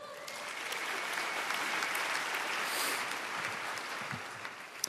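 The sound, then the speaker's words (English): Steady applause from an audience, a dense wash of many hands clapping at once, sustained at an even level for several seconds before tapering slightly. “these stunning photos are by Glenn Nelson, so let's hear it up for him”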